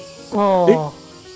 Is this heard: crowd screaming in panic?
no